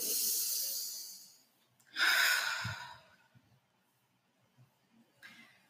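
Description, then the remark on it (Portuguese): Slow, deep breaths: a long airy inhale, then a fuller breathy exhale like a sigh, with a softer breath beginning near the end. No talking. “Então, respirando fundo.”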